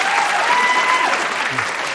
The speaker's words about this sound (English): National Public Radio crowd here tonight. Um, and can you also uh, clap loudly if you have used a dating app? All right.